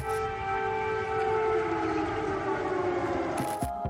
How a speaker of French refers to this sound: Sur fond d'alarme anti-aérienne, dans une ville totalement bouclée et entourée de militaires, Joe Biden et Volodymyr Zelensky défilent côte à côte dans les rues de la capitale ukrainienne.